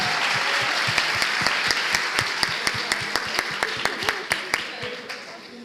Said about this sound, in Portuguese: Vocês podem dar palmas para esses meninos aqui, maravilhosos.